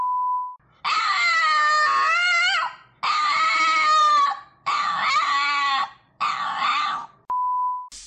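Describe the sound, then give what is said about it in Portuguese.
A dog whines and grumbles in four drawn-out, warbling bursts, loud, with short pauses between them. A brief steady beep tone sounds at the start and again near the end. “O cachorro daqui tá fazendo sucesso também.”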